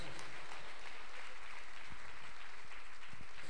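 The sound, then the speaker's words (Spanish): An audience claps together in praise to God, a dense, sustained burst of applause, steady and fairly loud throughout, with no one speaking over it. “Ah, palmas a Dios, palmas a Él.”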